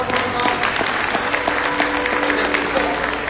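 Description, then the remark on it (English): A crowd claps steadily for their missionaries, a dense, sustained wash of applause with a faint murmur of voices mixed underneath. “So let's hear it for our missionaries.”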